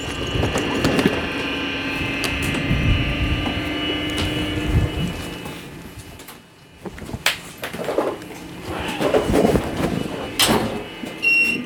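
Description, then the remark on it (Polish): Loud, continuous train rumble comes through a tinny phone line, with a steady high-pitched whine, scattered clanks and clicks, and a brief quieter dip partway through. No one speaks. “Słyszę straszny hałas. Mówię ci, że mam pociąg już.”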